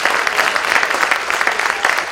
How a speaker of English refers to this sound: Come on, let's give him a real, real clap of praise today. Hallelujah.